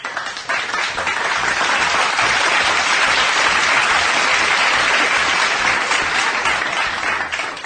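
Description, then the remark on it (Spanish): Sustained applause from a crowd fills the whole stretch, dense and loud, a steady wash of many hands clapping that begins abruptly and holds without pause. “Señores, Mario G. Aplausos. Aplausos, aplausos.”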